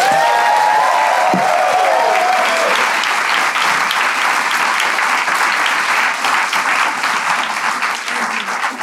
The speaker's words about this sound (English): Can we give it up for Syd, please?